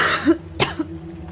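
A woman gives a single short, sharp cough, with a brief throaty catch just before it and quiet breathing afterward. No one speaks.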